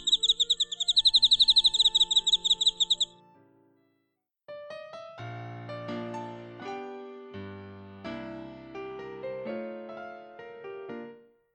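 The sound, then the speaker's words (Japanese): A rapid, steady run of bright, high-pitched cricket chirps, a cricket rubbing its wings in a telling of the story The Very Quiet Cricket, pulses for about three seconds, then stops; after a short pause, a gentle tinkling melody plays. No one speaks. “And this time he chirped the most beautiful sound that she had ever heard すると今まで聞いた中で一番美しい音を鳴きました”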